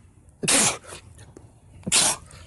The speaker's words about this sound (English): Damn, three sneezes in a row. I'm gonna die.